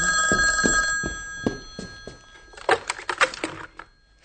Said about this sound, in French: Le téléphone sonne dans la maison.